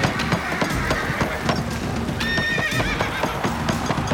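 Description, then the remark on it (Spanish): Rapid hooves pound in a steady galloping rhythm throughout as a horse runs in a race, and partway through it lets out a loud, shrill neigh over the drumming hoofbeats. No one speaks. “El rey Wei Wan de Qi a menudo se reunía con Tian Ji para organizar carreras de caballos”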